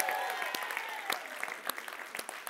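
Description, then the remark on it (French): An audience at the Salle Albert Dumouchel in Valleyfield claps steadily for itself in a dense wash of applause, with sharp individual claps standing out, a few faint cheers underneath, and the clapping thinning slightly toward the end. “Pour vrai, applaudissez-vous encore une fois d'être là.”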